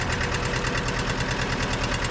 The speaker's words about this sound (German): Gut. Dann machen wir jetzt mal Feierabend und machen den Trecker wieder aus.